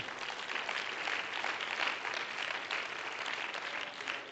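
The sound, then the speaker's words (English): An audience claps hands to praise the Lord in sustained, dense applause for several seconds, a steady wash of many overlapping claps with no voices standing out. “Let's clap our hands to Him.”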